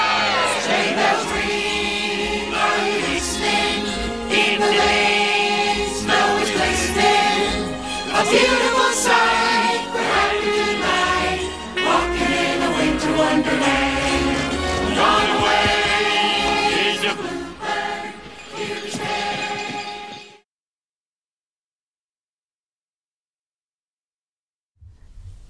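A recorded Christmas song sung by a chorus of cartoon character voices over a full, lively band. It plays loud and steady for about twenty seconds, then stops abruptly into silence.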